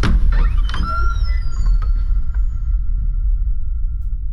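A bedroom door creaks open at three in the morning with a long, drawn-out squeal and a few faint knocks, set over a steady low rumble that continues after the creak fades.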